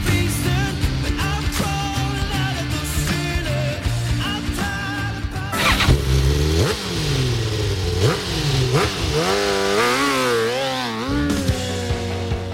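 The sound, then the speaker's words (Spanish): Racing motorcycle engines at the MotoGP Grand Prix of India rev loudly and continuously, their pitch climbing and dropping in repeated sweeps as the bikes accelerate and shift, with a dense steady drone underneath and no voices. “las motos.”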